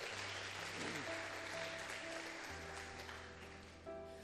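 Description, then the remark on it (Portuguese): A crowd claps steadily for several seconds as applause for Jesus, dense and fairly loud, while sustained organ-like chords and a low bass note play underneath without any speech. “Dá uma salva de palmas a Jesus aí, porque Ele é bom.”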